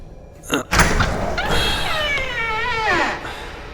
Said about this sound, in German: Nicht zuschlagen lassen, die Tür.